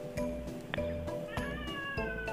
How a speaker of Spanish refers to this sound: Hoy quién está ahí al fondo. ¿Es un bebé o un gato? Gatas. Las gatas. Y tenés Están jugando. ¿Están jugando a qué juegan las gatas?